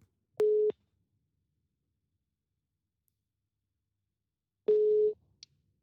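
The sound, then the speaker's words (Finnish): A phone's ringback tone sounds twice: two short, steady electronic beeps about four seconds apart, clear and alone with silence between, followed by a faint click. “Lähdetäänkö soittaa? Lähdetäänpä soittaa, niin päästään ihan asiankin.”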